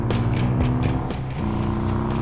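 A motorcycle engine roars loud, revving with rising and falling whines as it speeds toward the listeners, with no voices over it.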